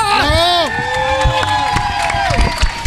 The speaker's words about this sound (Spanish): un gran aplauso, por favor.